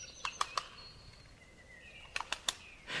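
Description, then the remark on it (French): A wood pigeon claps its wings in two quick bursts of three sharp cracks, separated by a pause, with faint bird calls lingering in the quiet background. “Et eh bah ben, le bon gros pigeon là, il peut également communiquer en claquant ses ailes.”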